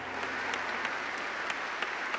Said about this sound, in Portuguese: Então, um aplauso, né?